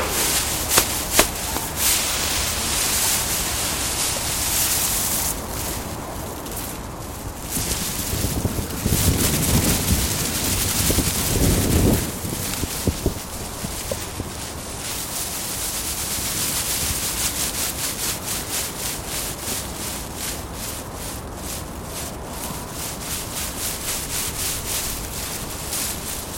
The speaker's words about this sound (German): Ob, wie wir jetzt gerade zum Beispiel dieses, diese Grashelme gespielt haben, indem wir die berührt haben